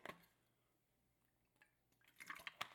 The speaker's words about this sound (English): And let me get a little, little swig of water real quick.